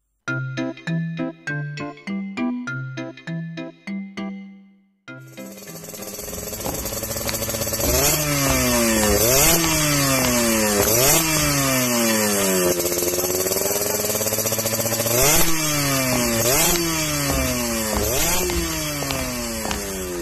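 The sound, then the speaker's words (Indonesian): A short melodic chime opens, then a motorcycle engine at a motorcycle repair workshop in the house across the street revs loudly again and again, its pitch repeatedly climbing and falling in steady bursts with a rough, buzzing roar throughout. “Iya benari, sudah seminggu ini rumah depan disewakan untuk bengkel motor.”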